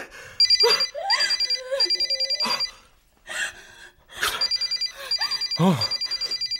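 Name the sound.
telephone ringing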